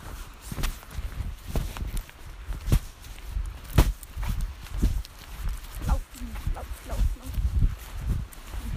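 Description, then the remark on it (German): A dog sniffs around at something it has spotted, short snuffling bursts coming in quick irregular runs, mixed with footsteps and rustling movement over a low outdoor rumble. “Der Hund sieht wieder mal was und schnuppert da rum.”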